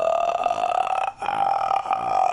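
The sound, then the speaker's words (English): A voice imitates a creepy, croaking ghost noise like those in Japanese horror films: a loud, rattling drone held for about a second, a brief break, then a second sustained croak. “Who can forget that noise that they make? Those creepy noises, like the one where they go, uh, Oh, hold on a minute.”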